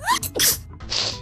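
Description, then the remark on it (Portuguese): A sharp sneeze from a woman allergic to cats bursts out with a rising inhale and explosive hiss, followed by a second breathy sniff or partial sneeze; no one talks over it. “Santinho, obrigada.”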